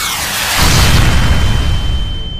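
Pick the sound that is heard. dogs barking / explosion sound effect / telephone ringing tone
explosion sound effect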